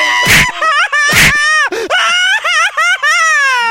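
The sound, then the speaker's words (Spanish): A man cries loudly, two harsh sobbing gasps giving way to a long, wavering wail that climbs and dips in pitch, broken by brief catches of breath. “¿Cómo llora ese güey?”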